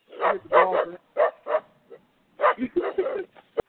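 A dog barks and yips in a quick, uneven run of loud bursts, a cluster of yaps, a short pause, then another flurry ending in one sharp bark.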